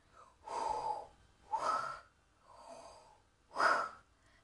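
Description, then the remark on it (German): Heavy, rasping respirator-style breathing, four slow drawn-out breaths alternating in and out, fairly loud, with no talking; a voice imitating the mechanical breathing of Darth Vader. “Mit einem Schnaufen von Darth Vader, der natürlich wieder von Hayden Christensen gespielt wird, worauf ich mich auch natürlich sehr freue.”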